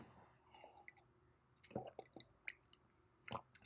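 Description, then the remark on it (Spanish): Wet mouth sounds of someone sipping English tea with a little sugar: a few short slurps and swallows with small clicks, quiet against near silence, no talking. “Entonces, déjenme, le doy un traguito a mi tecito.”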